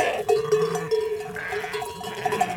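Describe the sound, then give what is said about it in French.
A herd of sheep or goats bleating, several overlapping calls rising and falling continuously, with a faint metallic bell-like tinkle among them and no talking. “on y entend des troupeaux.”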